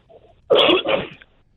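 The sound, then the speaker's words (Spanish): A single loud sneeze bursts out with a sharp, airy explosion, preceded by a faint quick inhale and trailing off into quiet. “¡Salud!”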